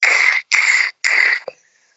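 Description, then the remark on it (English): A voice imitates a scraping, rubbing noise from a car wheel, like a piece of trim caught on the wheel, with three harsh, hissy bursts in an even rhythm, fairly loud, ending in a brief soft thump. “We pulled over in the car park, and how it sounded to me was that a piece of trim had been caught onto the wheel.”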